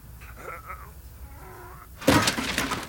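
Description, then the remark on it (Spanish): After a couple of seconds of faint, quiet murmuring, a box suddenly crashes over, its contents clattering and spilling out in a loud, scattered burst that lasts under a second. “No, se cayó todo. Javier, ¿qué fue ese ruido? ¿Estás en el altillo?”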